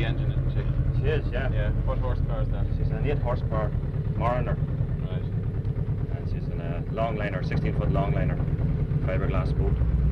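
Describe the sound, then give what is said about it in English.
A steady, low rumble of road traffic passing overhead on Mullen Bridge, one of the busiest bridges on this stretch of the Royal Canal, fills the whole stretch, continuous and fairly loud, with people talking intermittently over it. “traffic overhead.”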